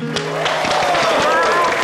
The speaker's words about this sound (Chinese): 拍手。